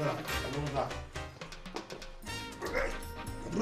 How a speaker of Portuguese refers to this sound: Deixa eu pôr o cachorro pra fora aqui, que ela quer. Acho que o cachorro quer mijar, viu, meu? Põe o cachorro pra fora.